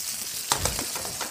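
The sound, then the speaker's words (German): Steady sizzling of potatoes frying in a pan, with a few sharp clinks and scraping shifts as the pan is shaken to loosen the potatoes from the crust, no voices. “Und dann schüttel ich die Pfanne und dann sehe ich ja schon, wie sich durch die Kruste hier sich manche und, ne, lösen, ne?”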